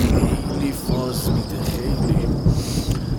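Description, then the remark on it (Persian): Low, rolling thunder rumbles steadily beneath a constant hiss of rain during a thunder and lightning storm, fairly loud throughout, with a faint high insect drone in the background. “بچه ها رد و برق زد بهتر خوابیدن با صدای بارون”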